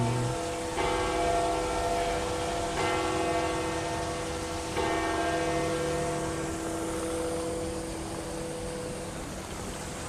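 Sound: church bells ringing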